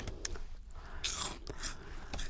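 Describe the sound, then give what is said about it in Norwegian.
Crunching of cheddar-coated cheese puffs (ostepop): several crisp, airy bites and chews in an uneven rhythm, bright and moderately loud, with no talking. “La oss begynne med denne. Åh, ah, ostepop.”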